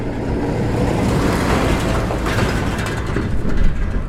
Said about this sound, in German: Plötzlich kommt ein Lastwagen die Straße entlang.